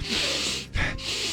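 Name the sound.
sniffing the air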